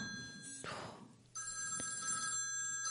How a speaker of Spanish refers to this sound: Oh, ¿quién será ahora otra vez el teléfono?